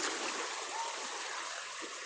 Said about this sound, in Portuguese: No meio da praia passa, um, passa então um lindo córrego de águas tão melífluas. É aqui onde eu moro.